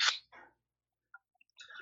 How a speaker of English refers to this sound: I'm gonna have to pour a little more whiskey in my glass. Mm-hmm. Pour a little more here.